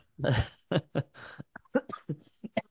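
A muffled, stifled cough opens with one strong burst, followed by a string of short, broken throat-clearing sounds, close to the microphone.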